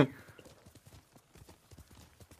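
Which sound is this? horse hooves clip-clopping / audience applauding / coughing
horse hooves clip-clopping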